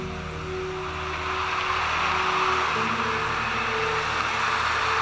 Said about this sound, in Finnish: Vihdoin hän kuuli auton moottorin äänen ja ajovalojen keila kajasti hänen silmissään. Hän nousi ja käveli autoa vastaan parkkipaikalla. Kuljettaja sammutti moottorin ja nousi ulos pienestä pakettiautosta, joka oli erityinen.